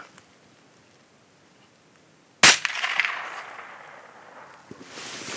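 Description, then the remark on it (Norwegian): A single sharp gunshot cracks out after a quiet stretch, followed by a rolling echo that fades over the next couple of seconds, with faint outdoor noise afterward. “Må du høre på første smellet.”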